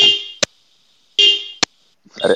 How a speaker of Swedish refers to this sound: vad händer? det skramlar jättemycket och ett telefonljud.